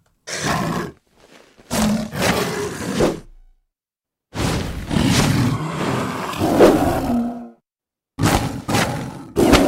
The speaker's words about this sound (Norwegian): er det han bjørnen i Tekken?